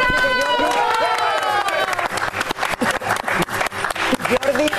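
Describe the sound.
An audience at a show in Miami breaks into steady, loud applause for a guest, with dense overlapping claps, following a brief tonal swell of music or voices at the start.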